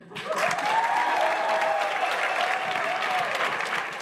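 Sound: audience clapping and cheering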